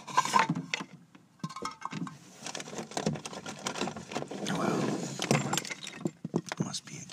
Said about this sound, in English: I just dropped some pencils behind this desk here.